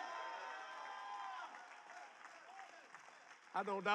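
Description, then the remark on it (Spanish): A church crowd at a Jesse Duplantis service claps and cheers for the Lord loudly and steadily, with shouting voices mixed into the dense applause; near the end it thins and a single voice speaks. “Vamos, gente, aplaudan al Señor, ¿sí?”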